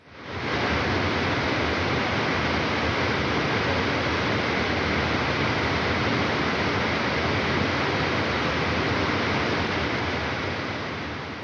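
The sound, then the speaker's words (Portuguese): Steady, dense rush of churning water at the top of the large central aquarium tank of the Oceanário, a continuous hiss-like roar that fades in quickly and holds level throughout, with no voices. “que ouvimos quando, quando estamos junto à, ao topo do aquário central do, do Oceanário”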